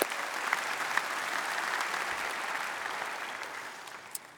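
Sustained evening applause from an audience for readers who have just read a passage aloud, a dense patter of many hands clapping steadily at moderate volume for several seconds, with a few sharper individual claps standing out.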